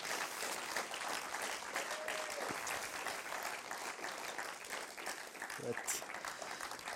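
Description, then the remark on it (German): An audience breaks into loud, sustained applause for a guest called onto the stage, a dense wash of many hands clapping at once that holds steady for several seconds without fading. “der kommt nicht gerne auf die Bühne, er steht nicht gerne vor Leuten, hat gesagt, einfach einen riesen Applaus geben.”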